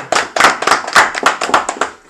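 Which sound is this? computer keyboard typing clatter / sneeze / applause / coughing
applause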